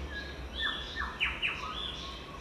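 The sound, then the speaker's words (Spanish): Small birds chirp in quick, high-pitched bursts, with a few sharp tweets standing out over a steady low outdoor rumble, fairly soft, in a leafy forest of firs and beeches in central Croatia. “Y sigo caminando y me cruzan pajaritos y mariposas.”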